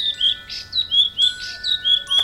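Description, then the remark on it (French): A small bird sings in quick, repeated high chirps and short trilling phrases, bright, with no voices present. “Et quand il eut fini de chanter, il battit des ailes et s'envola devant eux.”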